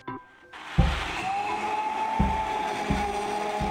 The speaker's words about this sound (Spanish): Bueno, nueces, nueces de acá, un, producto bien de acá. Vamos a licuarlas con las nueces, agua, ¿sí?